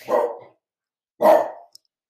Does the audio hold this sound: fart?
no